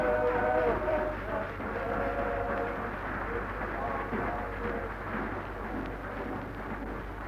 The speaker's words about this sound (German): London, 5. Juni. England wirft neue Marschbataillone auf den Kriegsschauplatz. Abfahrt vom Charing Cross Bahnhof.